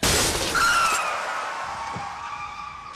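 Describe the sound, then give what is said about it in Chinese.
In the film 11:14, a drunk driver's car slams into a man with a loud burst of shattering glass, then a high tire screech lingers and slowly fades over the next couple of seconds. “在十一点十四分的时候，醉酒哥撞死了一个男人，脑袋基本已经被撞成了肉夹馍。”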